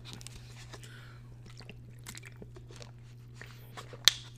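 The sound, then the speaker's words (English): Someone drinks water: quiet sips and swallowing with small wet mouth clicks over a steady low hum, then one sharp click near the end. Nobody speaks. “hold on, water break.”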